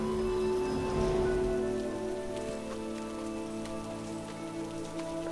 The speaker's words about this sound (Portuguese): Uma vez dentro da cidade, vocês observam, mesmo debaixo dessa grande chuva